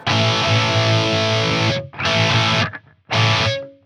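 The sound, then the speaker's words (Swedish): Thick, heavily distorted guitar chords played in three bursts, each chopped off abruptly into near silence by a hard noise gate, with a droning low tone under the grind. “Det är så hårt gatat så det hörs inte”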